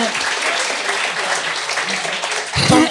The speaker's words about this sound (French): Euh, oui, on va l'applaudir.